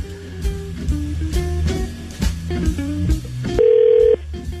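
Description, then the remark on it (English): A rapid run of short electronic tones as a telephone number is dialed ends with one longer, steady beep. Fairly loud, with no one talking. “Let's see if uh, let's see if I, I dialed correctly.”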